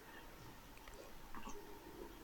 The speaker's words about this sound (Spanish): Bueno, le di un trago a mi té relajante. Sorbito.